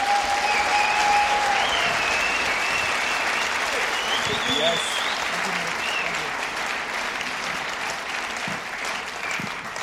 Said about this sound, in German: Und deswegen kriegst du jetzt nochmal deinen richtigen Stepcon-Applaus, wenn du hier nach vorne kommst und uns dienst.